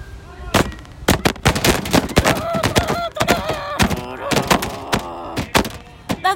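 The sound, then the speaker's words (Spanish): A drum roll sounds from afar as a series of sharp, booming drum hits at an uneven pace, mixed with a voice-like tone running underneath. “Me parece que oigo redoblar a lo lejos el tambor.”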